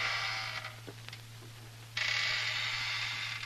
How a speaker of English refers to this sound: Will you stop squeaking the chair?